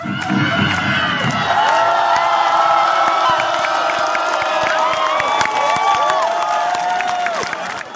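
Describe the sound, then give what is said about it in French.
A large concert crowd roars and cheers continuously, with piercing whistles, scattered shouts and clapping blending into a dense, loud wall of sound that barely lets up. “Il va littéralement retourner le public.”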